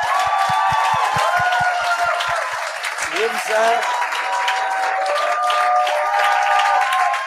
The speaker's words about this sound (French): Là, les deux, j'aimerais qu'on leur donne une bonne main d'applaudissements.